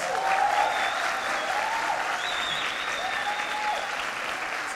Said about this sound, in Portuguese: Vem, vem todo mundo aqui na frente, eu quero orar com vocês. Será que você pode dar uma salva de palmas por essas vidas?